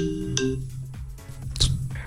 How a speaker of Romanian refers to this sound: A sunat un telefon, nu-i problemă.